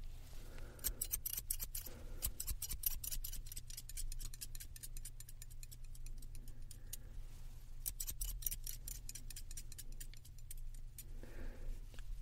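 Rapid, crisp scissor snips cutting a customer's hair in a hair salon, coming in quick irregular bursts with short pauses, over a low steady hum and no talking.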